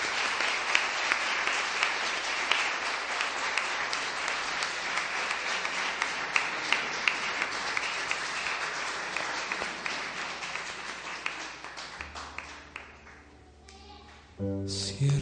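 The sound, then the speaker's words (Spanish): A church crowd applauds a minister in a dense, steady burst of clapping that carries on for about twelve seconds before thinning out and fading, just as music starts up at the very end. “Dale un aplauso”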